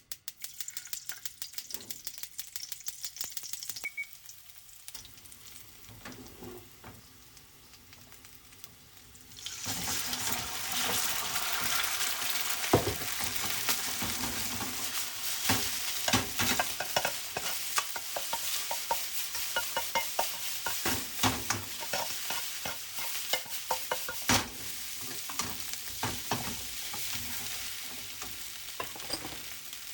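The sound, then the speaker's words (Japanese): Fried rice sizzling and being stir-fried in a heavy Chinese wok at home, a dense crackling hiss with scraping and clattering that grows louder after a quieter start, with no talking. “チャーハン炒めろといいですね”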